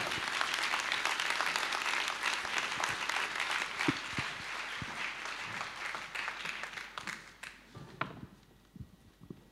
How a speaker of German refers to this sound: Begrüßt sie mit mir mit einem tosenden Applaus, wie sie das erlebt haben und leben.